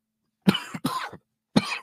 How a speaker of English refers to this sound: Pardon me. What a time to cough.